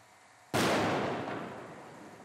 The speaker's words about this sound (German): Höchstwahrscheinlich sind hier äh, Gasflaschen explodiert, die zum Schweißen benutzt werden auf dieser Baustelle.